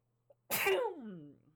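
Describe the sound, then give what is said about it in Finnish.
A single loud sneeze: a faint catch of breath, then a sharp explosive burst that trails off into a falling voiced tail, over a low steady hum. “Aivastan mm. ihan juuri pieni hetki.”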